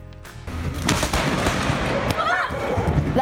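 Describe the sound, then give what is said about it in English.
A close lightning strike during a passing storm, filmed from a house window: a sudden sharp crack breaks into a loud, sustained roaring rumble of thunder with crackling bursts. The roar continues steadily to the end. Shown on WBTV. “He was hoping to catch a couple lightning strikes on video, and boy did he.”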